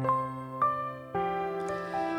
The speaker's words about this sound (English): That's the sound of our Verbum library launching.